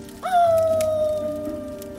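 A hungry wolf lets out one long, loud howl that rises sharply, then holds and slowly sinks in pitch as it trails off, set against a faint steady background hum.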